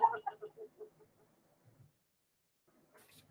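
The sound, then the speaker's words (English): The speaker's pet dog makes a quick run of high, whiny yips that start loud and fade over about a second, followed by quiet and a faint rustle. “Now you can all have my life because that's my dog.”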